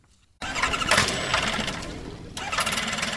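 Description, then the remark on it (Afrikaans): A light aircraft engine catches abruptly after a moment of silence, then settles into a loud, steady, buzzing roar that briefly eases before surging again. The plane is built to fly slowly and low for anti-poaching and monitoring work by rangers in a national park. “Hierdie is 'n vliegtuig wat uh, baie besonderse eienskappe het.”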